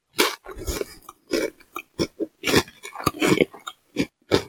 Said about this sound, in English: Yeah, you know, so there's a bit of a crunch here. There's plenty of chew going on within this snap pea crisp.